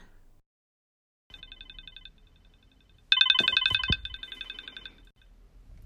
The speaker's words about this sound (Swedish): Det blir vanligt samtal istället, men det går ju faktiskt lika bra. Då ringer vi. Får vi se om hon, om hon svarar.